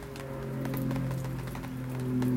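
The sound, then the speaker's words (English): A steady low engine drone with a broad rushing hiss of an airplane passing overhead at 6:04 a.m., holding level and swelling slightly toward the end. No one speaks. “I don't think I've ever heard an airplane over here at 6:04 a.m.”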